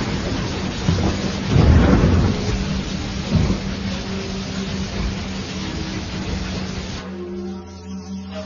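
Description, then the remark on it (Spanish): Deep thunder rumbles through steady rainfall, swelling to a loud peak early on and rolling again more softly before fading, with the hiss of rain continuing throughout. “cuando truena, es que resquebrajan sus cántaros, y si algún rayo cae, es que un fragmento de las vasijas rotas viene sobre la tierra.”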